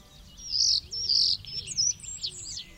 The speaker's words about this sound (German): Und Tatsache, auf einem Ast vor dem Fenster saß er, Mozarts Star, und zwitscherte ihnen fröhlich zu.